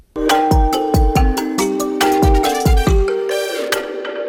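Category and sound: signal or alarm, telephone ringing tone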